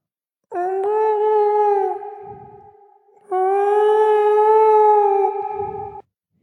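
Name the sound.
whale song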